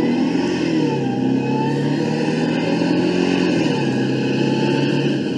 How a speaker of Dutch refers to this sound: Om af te sluiten, nog een klein stukje optrekken. Ik zie hier een mooi stukje weg voor me liggen. Eventjes, ja.